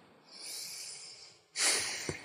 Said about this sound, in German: Schnaufen hat mir das Leben gerettet. Schnaufen, also ja, wow. Nein, aber ich meine, psychisch das Leben gerettet.